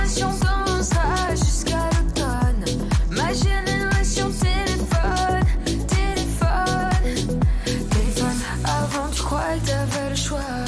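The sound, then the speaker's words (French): An upbeat dance-pop song by a female singer plays loud, driven by a steady thumping beat with bright synth chords and a sung vocal line, the bass shifting in its final seconds. “Euh, avec sa chanson dansante, elle se fait le porte-voix de la, elle se fait le porte de la génération téléphone qui n'attend rien de personne.”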